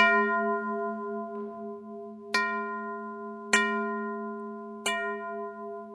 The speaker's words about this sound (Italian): C'è un modo per riconoscere l'integrità del vaso stesso. E qual è? Come si dice a Roma, mediante la famosa schicchera. Io do una piccola botta sul, bordo del vaso e sentire voi stessi le celestiali campane di San Pietro.